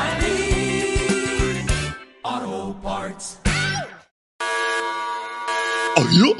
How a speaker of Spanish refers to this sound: me dijeron que sonaría una bocina. Ahí están.